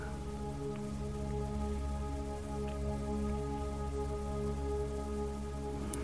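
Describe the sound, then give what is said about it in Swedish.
Steady rain falls and patters on a surface, a continuous soft hiss with scattered drops, heard alone with a low hum underneath and no voices. “Och fokusera på ljudet av regnet.”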